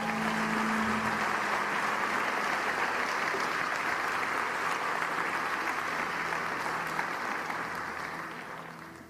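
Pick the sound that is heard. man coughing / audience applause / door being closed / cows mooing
audience applause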